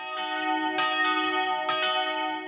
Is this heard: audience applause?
no